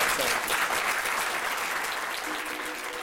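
An audience claps steadily, a dense wash of many hands with no separate beats, holding at a fairly loud level and tapering slightly toward the end.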